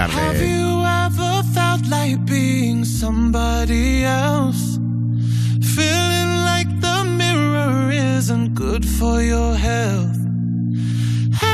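A pop song by a British male singer, his melodic vocal over steady, booming bass chords that shift every few seconds, playing loud and continuous throughout.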